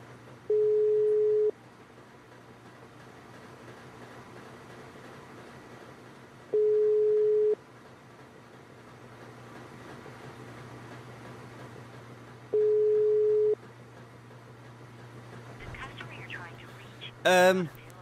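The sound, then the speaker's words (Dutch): An outgoing call rings on a phone line: three steady ringback tones, each about a second long and spaced several seconds apart, over a low hum, and nobody answers. “Ja, ik eh, neem de telefoon niet op.”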